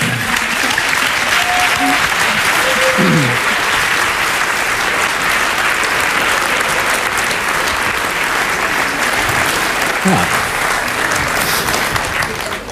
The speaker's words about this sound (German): Ein donnernder Applaus für Florian Schröder.